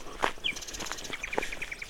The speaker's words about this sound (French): Et le chemin longe une vigne juste éclairée par le soleil. Au loin, une petite colline boisée et les oiseaux.